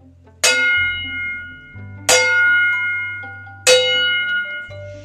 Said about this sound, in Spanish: A lo lejos, oía las campanas de un pueblo.